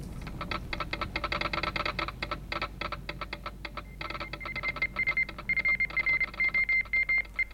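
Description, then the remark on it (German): Rapid mechanical clicking gives way to a steady high-pitched Morse code radio beep, pulsing on and off in short and longer bursts, fairly loud, with no one speaking; the transmission is calling the coast station at Land's End in Cornwall, England. “Ich kenne sowohl das Morse-Alphabet als auch die gebräuchlichen Wellenlängen. Wir rufen die Küstenstation von Land's End in Cornwall, England.”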